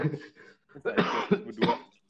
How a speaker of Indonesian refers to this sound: eh batuk lu